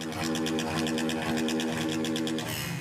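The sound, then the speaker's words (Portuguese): Motorcycle engines drone loudly and steadily at night in a neighbourhood on the outskirts of Santo André, Greater São Paulo, Brazil, a buzzing, throbbing roar with a rapid pulsing rhythm and slight shifts in pitch as they rev. “O barulho do motor das motos é o aviso.”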